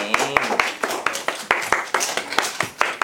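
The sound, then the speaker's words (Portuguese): An audience breaks into a round of applause, a dense patter of many hands clapping at a steady, moderately loud level for about three seconds. “Então salva de palma para vocês, plateia também.”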